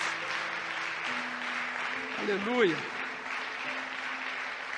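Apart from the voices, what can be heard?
audience applause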